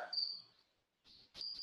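Crickets chirping in a thin, high-pitched trill, heard in two bursts separated by a brief silence, fairly quiet and with no voices over it.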